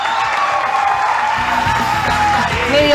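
A live audience applauds and cheers for three seconds, a dense, steady wash of clapping with scattered whoops and shouted voices rising over it, loud throughout.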